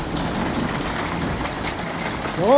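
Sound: heavy hail falling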